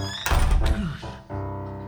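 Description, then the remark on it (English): A man collapses onto the floor with a deep, muffled thud, quickly followed by a second softer bump, over a steady low hum. “Just then, the door flew open, and through the blowing snow, a man staggered in and collapsed on the floor.”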